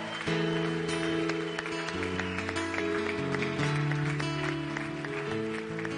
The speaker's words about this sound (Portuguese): Acho que vale a pena a gente aplaudir, celebrando esse momento de vitória, de alegria.